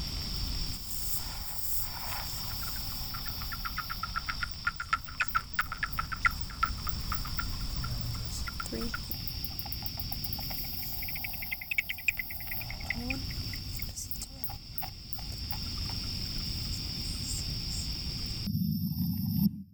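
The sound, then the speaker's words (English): Little brown myotis bat echolocation calls: rapid, faint dry clicks and ticks in irregular bursts, sometimes speeding into quick trains, over a steady high hiss. No voices. “Oh, Ooh, little brown myotis, apparently.”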